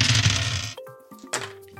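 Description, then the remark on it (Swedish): A dense burst of clattering as dice tumble across a hard table in a group roll by several players, lasting under a second, followed by a few lighter clicks and a faint ringing tone as they settle. “en grupphandling, det vill säga att ni alla slår och tillsammans behöver ni komma upp i värde 4.”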